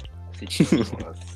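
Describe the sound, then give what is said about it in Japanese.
A few crisp crunches of someone chewing Polinky corn snack chips, clustered in a quick burst of three or four bites over a low background hum. “いや、お前、ポリンキー食ってるやろ。”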